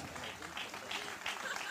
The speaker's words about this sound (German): Nochmal einen riesen Applaus für alle Gäste. Unsere Gäste hier in Rosbach.